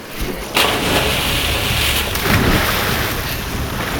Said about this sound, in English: The rapids are too strong. They'll wash us down river.